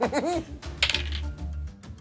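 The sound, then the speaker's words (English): Dice clatter across a hard tabletop in a quick burst of crisp clicks and rattles, settling within about a second, after a brief vocal sound at the start. The dice are rolled for a Constitution check in a tabletop role-playing game. “That was satisfying. That was very crisp.”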